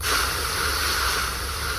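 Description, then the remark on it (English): A steady sci-fi engine hum of the starship Cerritos: a deep, rumbling drone layered with a broad airy hiss, holding an even, unbroken level from start to finish with no voices. “Uh, that was Enterprise D at warp 4. This is Cerritos.”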